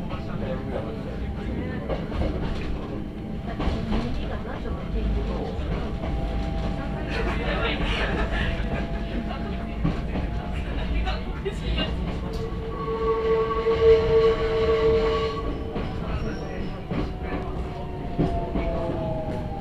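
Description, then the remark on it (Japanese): A mountain railway train rumbles steadily at Ohiradai station (OH53) as it makes its second switchback, with low engine drone, clattering wheels and sustained squealing, whining tones rising and falling over the noise. “We will soon be arriving at Ohiradai OH53 Please watch your steps as you disembark The doors on the right side will open The train will conduct the second switchback at this station.”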